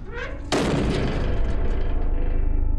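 A single heavy, loud bang strikes after a brief quiet lead-in as the inside of a chamber is struck, booming, followed by a dense, rumbling resonance that lingers to the end.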